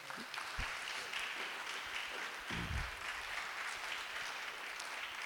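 Steady audience applause at a cooking course evening in the Blaue Donau fills the whole stretch. It is a dense wash of many hands clapping at an even level, with a few heavier low thumps near the middle and no voices.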